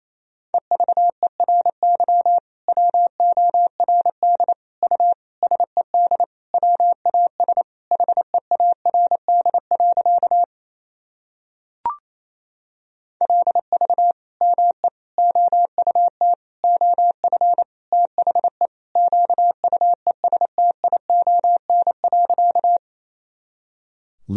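A steady single-pitch tone keyed rapidly on and off in Morse code at 28 words per minute, sending a sentence in two fast bursts of dots and dashes separated by a short pause, clear with no voices.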